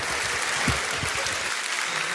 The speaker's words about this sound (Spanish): Un fuerte aplauso para él, nos has dado un grato momento.